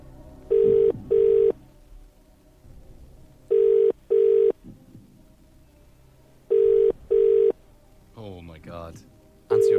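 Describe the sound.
A telephone ringback tone sounds in three evenly spaced double rings over a quiet line as a call is placed to a randomly selected number, followed by a brief voice answering from Finglas near the end before one more ring starts.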